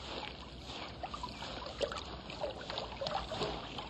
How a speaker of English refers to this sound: I found a brook.